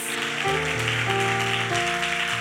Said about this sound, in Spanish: ¿Por qué no les damos un aplauso fuerte a ellas?